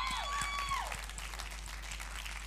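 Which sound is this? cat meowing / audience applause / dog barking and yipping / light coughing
audience applause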